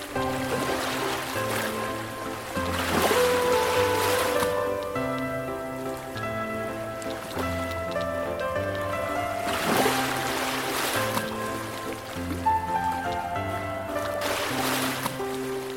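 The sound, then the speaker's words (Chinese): Ocean waves surge and recede in broad, hissing swells under steady melodic music, with the loudest wash building around three seconds and again near ten and fifteen seconds. “我们的声是海浪的声音，我们不是海洋生态的节目哦。”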